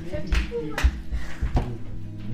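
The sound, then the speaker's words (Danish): A few dull knocks, about three, land at uneven intervals, moderately loud, with soft vocal sounds murmuring underneath. “Hvem er det, der banker?”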